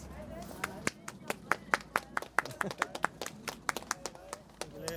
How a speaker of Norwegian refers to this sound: Applaus!